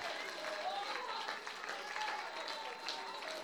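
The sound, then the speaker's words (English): A large church audience claps steadily and shouts praise to God together, a dense, continuous wash of applause and raised voices for several seconds. “Confuse the enemy with your clap, confuse the enemy with your shout.”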